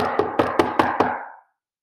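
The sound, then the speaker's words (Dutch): Six quick, evenly spaced knocks on a door, fairly loud, followed by a short resonant ring that fades out. No voices are heard. “Hij klopte op zijn deur”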